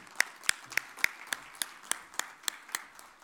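Sparse applause at the 2022 Prêmio Personalidade da Comunicação award ceremony as a director is called to the stage: steady, evenly paced claps, roughly three or four per second, sharp and fairly quiet rather than a dense crowd roar. No one is talking.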